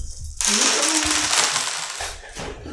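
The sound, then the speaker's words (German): A loud, dense clatter of many dice rolled at once by a group for the tabletop game Fiasco, rattling and tumbling together for a couple of seconds before settling, with no talking. “Genau, wir müssen jetzt einmal alle zusammen für das Spiel Fiasco, falls man äh, das hier veröffentlicht, äh, einmal alle unsere Würfel Bitte würfel nicht auf den Boden, am besten.”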